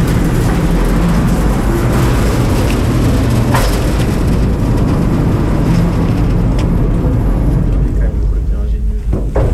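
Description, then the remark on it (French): A heavy observatory shelter on the Plateau d'Albion rolls open along its rails, on the same principle as a nuclear missile silo head, with a loud, steady, grinding rumble that carries on for the whole stretch, with faint voices murmuring underneath. “Et on fait glisser l'abri sur des rails.”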